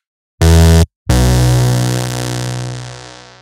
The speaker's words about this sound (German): Und das Ding klang, klingt aber wirklich gut, dieser, dieser Minimoog, dieser virtuelle, dieser äh, i-Minimoog.